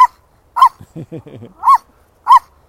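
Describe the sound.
A feisty female puppy gives four sharp, high-pitched yappy barks at uneven intervals, loud, with a person briefly talking between the first and third barks, during a dog walk.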